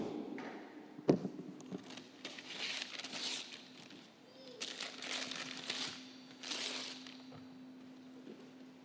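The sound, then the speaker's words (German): A microphone is set down with a sharp thump, followed by several seconds of rustling, crinkling handling noise in uneven bursts over a faint steady hum. “Und dann fängt Gott an, ich, ich lege das mal kurz weg, mein Mikro, dann fängt Gott an, etwas zu tun.”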